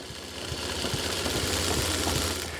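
A pedal-powered sewing machine, worked by a teenage tailor, runs steadily with a dense mechanical whirr and rapid rhythmic clatter, fairly loud, with no voices over it.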